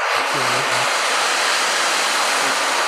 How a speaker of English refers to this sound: so the ocean drum yeah i've heard them referred to as a rain drum yeah yeah that's a wave